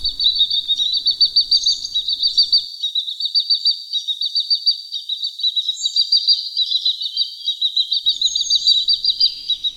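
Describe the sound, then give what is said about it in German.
Great crested grebe chicks calling loudly and nonstop as they swarm out again around their swimming parents, a dense stream of shrill, high-pitched peeping in quick repeated bursts, with no talking. “Und dann, wenn es wieder okay ist, dann schwärmen sie wieder so ein bisschen aus und machen extrem Lärm.”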